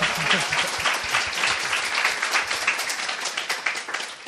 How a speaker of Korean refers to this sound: 박수 한번 쳐드릴까요?